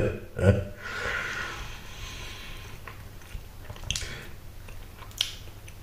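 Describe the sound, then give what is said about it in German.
Wet chewing with loud lip-smacking, a sharp smack near the start and a few more scattered clicks and squelches over a steady mouth noise, with no talking. “Schmatzen Sie nicht so, äh, äh, schmatz nicht so”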